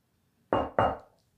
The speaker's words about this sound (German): Wer klopft an?